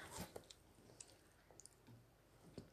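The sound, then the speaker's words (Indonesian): Wet chewing of food with scattered clicks and squishy bites repeating irregularly, quiet overall with a few sharper crunches; no one talks. “maaf ya guys lagi ngunyah”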